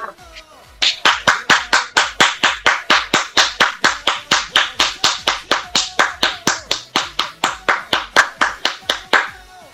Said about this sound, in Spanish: ¡Aplausos, por favor!